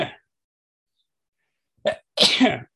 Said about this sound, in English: Um, and hang on, I need to sneeze.